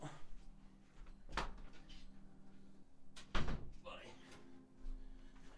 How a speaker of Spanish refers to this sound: Pues dejarme un segundo que voy a, voy a cerrar la puerta de aquí. Un momento.